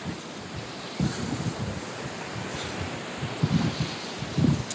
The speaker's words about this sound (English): And just take a second, a minute, and listen to the waves.